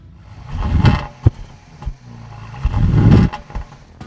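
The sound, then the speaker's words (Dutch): A small car engine is started on request, cranking and sputtering to life, revving in uneven bursts with sharp clattering pops, then settling into a rough, lumpy idle before revving again. Fairly loud. “Maar ik wil wel heel graag het geluid horen. Zou je hem willen starten? Jazeker, slinger hem aan voor je.”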